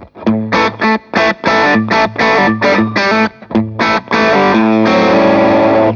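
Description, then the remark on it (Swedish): Electric guitar through a Tube Screamer overdrive pedal with the drive set low, playing a quick run of short, choppy chord stabs before letting one gritty chord ring out. “Jag, test, jag vrider ner driven här bara så ja, kan man ja, höra hur ja. den låter.”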